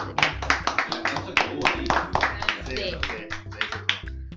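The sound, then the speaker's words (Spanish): A crowd applauds for the families of the disappeared, with sharp, uneven claps that keep going for several seconds at a steady, moderately loud level, while voices murmur underneath. “vamos a pedir un aplauso también por familiares de...”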